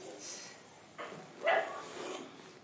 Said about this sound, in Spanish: También escuchan perritos ahí.